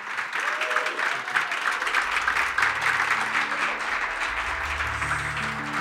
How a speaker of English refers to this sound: Thank you so much with those words, I think if we could, as an audience, you can't see us, but perhaps you can hear us. So if we could put our hands together and thank you.